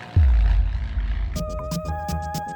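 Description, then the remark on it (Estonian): A deep, continuous drone of heavy aircraft engines rumbles throughout, joined halfway by steady high whining tones and a series of sharp, percussive bursts. “tuhande üheksasaja neljakümnendad, lugematud nupuvajutused tapavad laskude ja valangutega miljoneid inimesi, saadavad teele lennukipomme ning mürske.”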